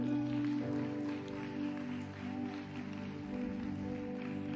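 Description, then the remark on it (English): An audience claps steadily for several seconds, a dense, even patter of many hands with no voices on top, fairly soft throughout. “Give them a clap.”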